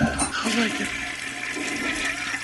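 toilet flushing

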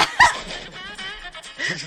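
small dog barking

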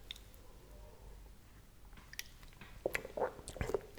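sipping coffee

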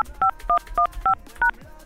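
telephone keypad dialing tones

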